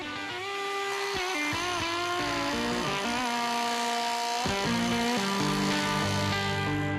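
A demolition hammer breaking concrete in a cellar: a loud, steady mechanical roar of rapid hammering, with brief shifts in pitch as it bites into the material, and no voices.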